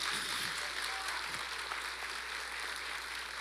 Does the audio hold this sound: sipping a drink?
no